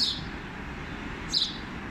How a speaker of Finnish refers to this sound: 30. päivä lokakuuta 2019 Pasilan asemalla junien ääniä, mutta jos tarkkaan kuuntelee, on täällä ihan perinteinen varpunen. Ei mikään pikkuvarpunen, vaan perinteinen vanha varpunen.